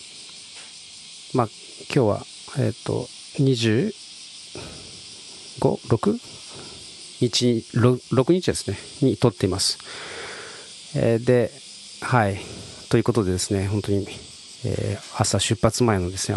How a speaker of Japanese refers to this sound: 慌ただしい時、撮ってますので、セミの声とかですね、いろいろなノイズが入ってますが、すいません。